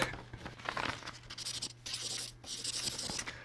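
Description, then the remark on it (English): Scratchy squeaks of a marker moving across paper in short irregular strokes, with brief pauses between them and a faint low hum underneath. “we both have pieces of paper and a pen.”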